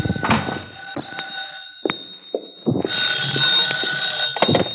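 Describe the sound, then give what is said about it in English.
A telephone in an apartment rings with a steady, insistent electronic bell tone through the whole stretch, fairly loud, accompanied by a few sharp clicks and bumps of handling. “My phone was ringing when I got there.”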